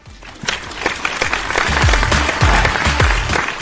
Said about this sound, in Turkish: Alkışlıyorum.